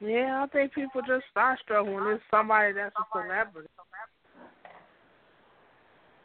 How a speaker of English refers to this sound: That echo is killing me.